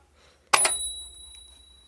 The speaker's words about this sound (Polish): Wygrywa ten, kto pierwszy zadzwoni dzwonkiem od Pita